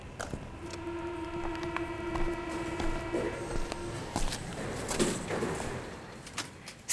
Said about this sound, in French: Une rame en provenance de la station Porte de Charenton entre à la Porte Dorée.